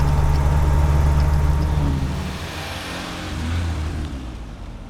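Steady low engine rumble from several vehicles idling together in a traffic jam on the Nationale 7 at Lapalisse, a dense continuous drone with slight swells; no voices.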